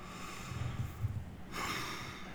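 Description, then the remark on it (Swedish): A long, deep breath drawn in, then a breathy exhale in a second phase, with a soft, noisy rushing quality and no talking; a slow, calm breath taken as a breathing exercise. “Långa, djupa andetag.”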